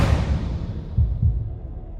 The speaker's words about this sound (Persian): از هیجان و استرس تپش قلب گرفتم